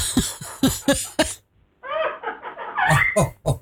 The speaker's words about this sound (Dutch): Het is toch verschrikkelijk? Je wordt aangelachen door je eigen vogel, hè?